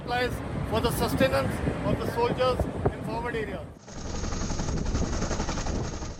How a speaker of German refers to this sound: Über Leh, der Hauptstadt des indischen Hochgebirgsterritoriums Ladakh, sind immer wieder Hubschrauber der indischen Streitkräfte zu hören und zu sehen.